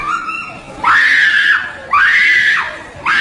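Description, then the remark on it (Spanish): A woman in a played video screams in repeated loud, high-pitched bursts as she finds her husband or boyfriend with another woman, jumping as she screams; three long wails rise sharply and hold before breaking off, with a faint steady tone underneath. “la morra grita y brinca, güey, como si o sea, como que le da un ataque de, desesperación, como, ¡ay, te voy a matar!”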